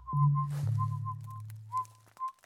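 Someone whistles a short, wandering tune of several clear notes with brief pauses between phrases, walking on a forest path, over a low steady hum in the background.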